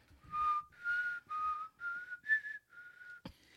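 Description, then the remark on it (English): A person whistles a run of six short, bright notes in a steady rhythm to call a dog, each note sliding slightly in pitch, with no talking. A brief sharp click follows. “would be in another room and she would want the dog to come and it didn't matter.”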